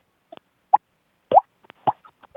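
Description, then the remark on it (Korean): A voice imitates water droplets with a series of short, hollow mouth plops, about eight of them at irregular intervals, some louder and some faint, with nothing else in between. “예, 그 저기 물방울 소리네.”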